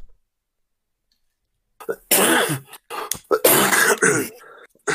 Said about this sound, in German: Entschuldigung. Gesundheit.